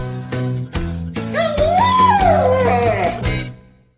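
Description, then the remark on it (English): A guide dog lets out a drawn-out whimpering whine that rises and then falls in pitch, fairly loud, over a steady tonal background, fading out near the end. “Guide dog.”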